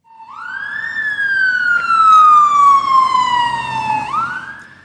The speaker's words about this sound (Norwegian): En politibil setter opp farten like ved politihuset i hovedstaden. Slike utrykninger, som haster, tar politiet nå alltid tiden på